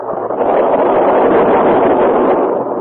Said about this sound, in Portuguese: Trovões se sucediam, enquanto fortes faíscas elétricas zigue-zagueavam pelo espaço.